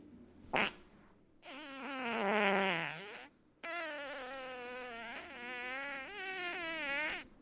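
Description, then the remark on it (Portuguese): A quick pop, then two long, loud farts, sent in by a listener from the group Vida e Saúde for a fart championship, with a buzzing, reedy tone whose pitch wavers up and down; the first dips low before a brief pause, the second stretches out steadily. “É um bom peido esse.”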